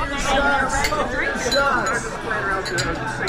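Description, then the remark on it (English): Shot glasses of Jaeger clink together a few times in quick, bright taps amid lively chatter and overlapping voices. “Oh, Jaeger shots.”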